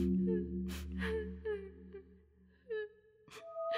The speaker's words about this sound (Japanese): 女は声をかけても泣いてばかりでこちらを振り向きません